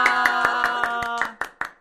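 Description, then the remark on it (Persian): Steady, rhythmic clapping, about nine claps in unison, with a sustained cheering shout over the first part before the last few claps ring out alone. “یه کف مرتب براش بزنین با جیغ و کف و هورا و همه چی هورا!”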